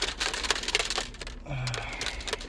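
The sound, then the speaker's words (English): Rapid rattling and clacking as a shaker bottle of blueberry kiwi pre-workout drink is shaken in a quick, uneven rhythm for about a second and a half before going to the gym, then a softer, continuous rustle follows. “Sorry, you're going to hear my shaker. I'm about to drink my pre workout before I go into the gym.”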